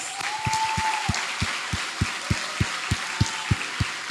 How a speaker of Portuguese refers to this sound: Você pode aplaudir essa mulher de Deus.